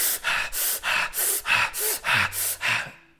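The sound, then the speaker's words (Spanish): Rapid, forceful breaths repeated in a steady rhythm, about eight sharp huffs of air in three seconds, loud with no talking: the breath of fire, a holotropic breathing exercise that over-oxygenates the body. “Esto es la respiración de fuego.”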